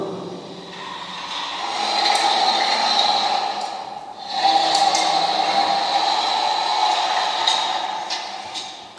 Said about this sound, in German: Und wir sind jetzt ähm, an kleinen Sensoren vorbeigelaufen, hinter denen sich jeweils Lautsprecher verbergen und dann so ein kurzes Sample von einem Rollkoffer ähm, abgespielt wird. Diese sechs Lautsprecher sind verteilt auf circa fünf Meter Länge.